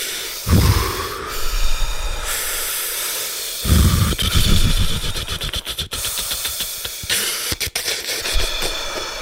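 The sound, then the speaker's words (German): Loud, forceful breathing, a rapid rhythmic series of deep gusty inhales and exhales from several people doing Wim Hof-style breathing together, with breathy blasts hitting the microphone and no talking. “Ich glaube, es gibt schon ein paar Hörer und Hörerinnen, die jetzt abgespritzt haben, weil sie uns so intensiv atmen gehört haben.”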